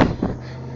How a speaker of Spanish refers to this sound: Ay, disculpen el ruido, el ruido es un poquito extremo. Se juntaron tres carros aquí, justo al lado mío.